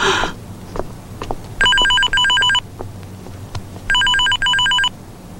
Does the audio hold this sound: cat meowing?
no